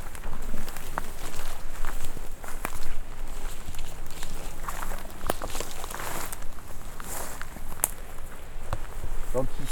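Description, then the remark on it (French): Footsteps walk through a forest in the Ariège with many ash trees, a steady series of crunching, rustling steps on the ground, set against a constant hiss of outdoor ambience. “Alors justement, je vais marcher devant toi.”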